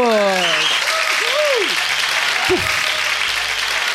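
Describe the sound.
A crowd claps steadily and densely for the full four seconds, a loud, even wash of applause, while a voice or two calls out over it with rising and falling whoops.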